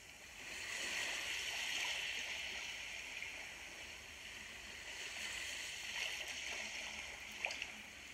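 Steady, soft rush of flowing water, like a small stream, continuing evenly throughout with faint splashes and gurgles near the end and no voices.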